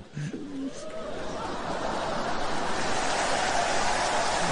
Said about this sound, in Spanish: No, pero no me pongan los aplausos, póngame la música.